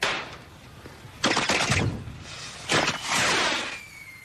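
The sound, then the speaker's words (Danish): Bursts of sharp crackling explosions in rapid clusters, like fireworks rockets popping and rattling, set off to ring in the New Year, with two loud volleys and a faint whistling streak trailing off near the end. “Giv mig raketten, inden det bliver for sent.”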